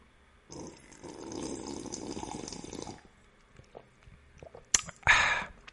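sipping water

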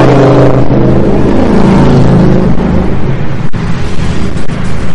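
motorcycles passing by loudly

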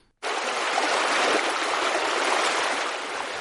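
river water flowing

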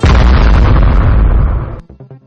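bomb explosion sound effect

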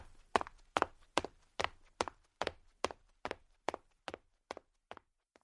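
footsteps climbing stairs

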